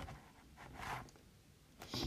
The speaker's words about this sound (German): Okay, umblättern.